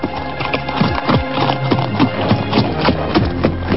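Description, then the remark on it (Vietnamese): Horse hooves clip-clop in a steady rhythm as two people ride horses side by side in silence, each sharp knock ringing out clearly at a walking pace, with no talking over them. “hai người lặng lẽ cưỡi ngựa sống nhau mà đi không ai nói thêm câu nào nữa”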